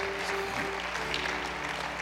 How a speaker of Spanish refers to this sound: ¿Alguien puede aplaudir todavía al Señor o ya están muy regañados?